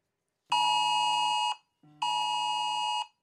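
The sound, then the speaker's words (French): A loud, harsh electronic alert tone from a UK government test of the mobile phone emergency alert system, sounding on most mobile phones in the United Kingdom at 3 pm with a message, in two long blasts of about a second each, separated by a short gap, with no voices. “Cette alerte a retenti sur la plupart des téléphones portables au Royaume-Uni hier à 15h. Une sirène accompagnée d'un message.”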